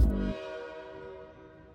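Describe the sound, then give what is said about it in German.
A train horn departure sound effect blares in one short, loud burst, then its sustained harmonic tone lingers and slowly fades with a ringing tail. No voices are heard. “wann geht denn eigentlich der Zug nach Fun City? Du, der fährt in Kürze.”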